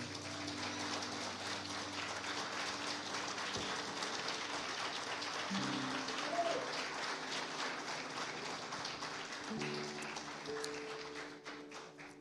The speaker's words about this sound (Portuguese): Se você concorda com tudo isso e você crê em tudo isso, aplauda Jesus bem forte aí.